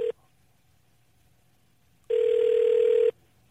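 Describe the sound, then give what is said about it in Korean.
Ringback tone of an outgoing phone call as a radio host phones a listener: a steady, mid-pitched electronic beep lasting about a second after a long silence, with the clipped end of an earlier tone at the start. No voices. “아, 전화 걸어보겠습니다.”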